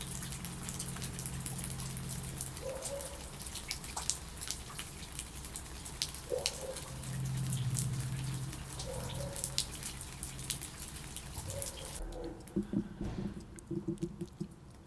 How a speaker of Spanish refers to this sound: Carrión lloviendo un poco. Carrión, lluvia ligera y campanadas. Quizás.